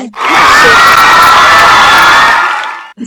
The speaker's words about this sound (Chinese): 好，来，我来把这个掌声调出来啊！